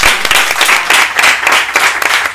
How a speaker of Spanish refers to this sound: Un aplauso. Muy bien.